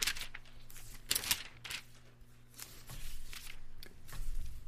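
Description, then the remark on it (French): Crisp, papery rustling comes in several quick bursts as the thin pages of a paper Bible are flipped one after another, turning to Exodus 16, over a faint steady hum, with no one speaking. “Habituellement, je fais juste mettre mon curseur sur le, le texte, puis le texte apparaît, mais là, ce soir, je dois tourner dans euh, la Bible en papier.”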